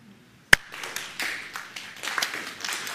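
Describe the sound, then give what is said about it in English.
A standing audience claps, each person at their own pace rather than in unison. It starts with one sharp clap and quickly swells into a dense, irregular patter of many hands that grows steadily louder. “We're not we're not clapping in unison yet. We all clap our own pace, and then we get in unison.”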